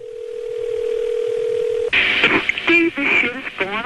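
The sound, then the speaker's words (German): A steady telephone dial tone hums for about two seconds, then gives way to a rapid run of dialing beeps, clear, with a voice coming in at the end, as a woman phones a union official in Washington. “telefoniert regelmäßig mit …, einem Gewerkschaftsbeamten in Washington, um ihre Funde mitzuteilen”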